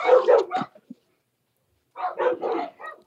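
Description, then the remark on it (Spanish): Pet dogs bark as they come in to greet, in two quick flurries of several loud barks each, separated by a brief silent pause, with no talking over them. “Ay, está entrando mis perritos. Están saludando.”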